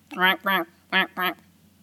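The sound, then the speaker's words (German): Four quick nasal quacks from a duck-call buzzer, grouped in two pairs, loud with short gaps between them and no other sound. “Das war so mein Buzzer, den ich gerade hier hatte.”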